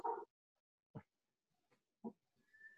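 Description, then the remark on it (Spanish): A pet dog barks three times in short, separate bursts, moderately loud, with brief pauses between them and a faint high tone near the end, barking at Newton, the dog of the house next door. “Sí, y le está ladrando al chucho de la otra casa, a Newton, ¿verdad?”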